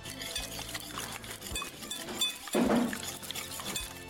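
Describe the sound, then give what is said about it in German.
Quark, eggs, vanilla sugar, sugar and a pinch of salt are whisked briskly until foamy in a bowl, the whisk clinking and scraping in a fast, steady rhythm, with a brief tonal sound partway through. “Und dann schlagen wir das ganz schäumig zusammen auf und dann gucken wir mal, was passiert.”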